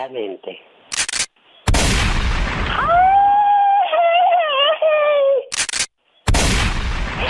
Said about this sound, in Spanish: están los balazos. Ya, ya, ya, ya, Nada más quería calarse. Aquí también servía mi pistola y sí sirve.